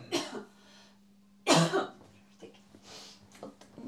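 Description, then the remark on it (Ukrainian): Two harsh coughs from a person after eating Doritos chips, the second louder and raspier, followed by quieter throat-clearing and breathy rustles over a faint steady hum. “тобто ти реально кашляєш від Дорітос”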